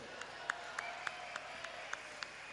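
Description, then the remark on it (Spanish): Light audience applause for five audience members who raised their hands as normal: a handful of sharp, evenly spaced claps, roughly three or four per second, standing out over a soft wash of crowd noise, with no voices. “Un aplauso para ellos.”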